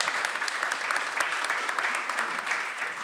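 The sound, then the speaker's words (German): Steady applause from a conference crowd after the announcement that the organisation rose from place 98 to 21 in the Potential Park ranking: a dense crackle of many hands clapping at once, holding an even loudness for a few seconds with no pauses. “Ja, das ist ja wohl mal ein Applaus wert an der Stelle.”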